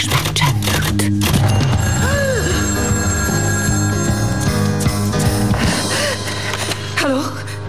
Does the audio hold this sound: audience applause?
no